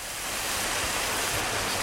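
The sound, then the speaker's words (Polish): A heavy downpour of rain: a dense, steady roaring hiss that stays at an even, loud level throughout, with no voices. “Ulewa prawdziwa.”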